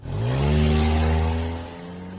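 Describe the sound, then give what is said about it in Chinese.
The engine of a brand-new silver Nissan Cefiro revs up with a rising, humming whine, then eases off and grows quieter as the car drives away. There is no talking. “照顾顾思雨坐到车里，给大家微笑着挥了挥手，潇洒的驾车离去。”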